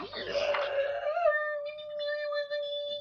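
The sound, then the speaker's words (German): A person's voice imitates a loud howling war cry from a forest, starting with a rough, breathy burst and settling into one long, steady, sustained wail for about three seconds. It is fairly loud. “Ihr hört ein lautes Heulen.”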